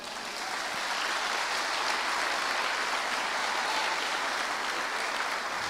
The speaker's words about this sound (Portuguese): Quantos podem aplaudir o Senhor por isso